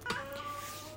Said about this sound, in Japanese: ちょっと猫が鳴いてますけれども